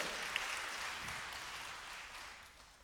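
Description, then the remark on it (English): A crowd applauds with a dense, steady patter of many hands clapping at once, tapering off slightly toward the end, with no voices over it. “it's one thing to like clap for the concept of it.”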